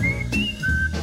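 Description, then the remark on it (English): A person whistles a short bird-like phrase of three clear, sustained high notes, the middle one gliding slightly, over a low steady background rumble with no talking. “Oh, he whistles pretty. Yeah, like a bird.”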